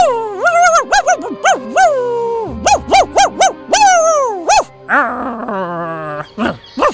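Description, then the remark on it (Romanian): A small dog, Patrocle, yelps loudly and repeatedly in a forest, its shrill, rising-and-falling cries coming in quick uneven bursts with whiny drawn-out notes between them, with no other sounds around. “Se auzi glasul cățelului țâhnind răsunător în pădure.”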